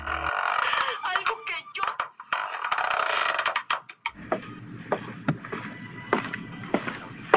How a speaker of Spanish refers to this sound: En la noche se escuchan los grillos cantar, la novela de las 10 de fondo y el rechinido de una mecedora.